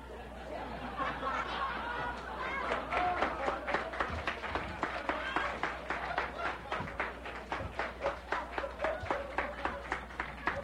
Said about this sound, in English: Well, now, wait a minute. Are you applauding Chuck? or the fantastic boo boo I made?